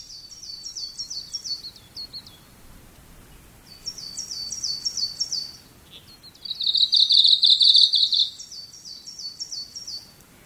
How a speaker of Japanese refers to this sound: ちょちょりちょちょりと鳴くこの鳥にオムシクいの名が当てられたのはつい10年ほど前のことです